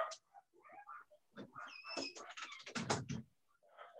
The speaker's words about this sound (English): I think the dogs were, were uh, uh, providing approbation and uh, sort of deep uh, agreement, uh, you know, with with what I was laying down there.